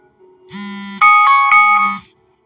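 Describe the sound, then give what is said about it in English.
A loud electronic alarm tone plays in a short repeating melodic pattern, alternating a low buzzy note with bright, ringing higher chimes, lasting about a second and a half with no talking. “I have alarms set for different things that I'm doing.”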